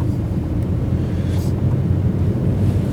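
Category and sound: vehicle, car interior engine rumble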